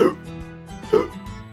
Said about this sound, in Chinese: 不好，乔治果汁喝得太快，开始打嗝了。吃完早餐，佩奇和乔治来到花园里，可乔治一直在打嗝，他们没办法像平时那样玩游戏。